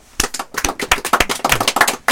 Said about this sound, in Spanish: le damos eh, un gran aplauso.